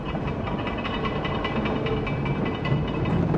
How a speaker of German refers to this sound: Dann war ein knirschendes Geräusch zu vernehmen. So als würden Eisenplatten übereinander verschoben.